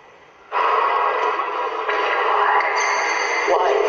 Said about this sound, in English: We are using the Geoport, which scans a random phonetic sound bank, allowing entities to produce intelligent responses to our questions.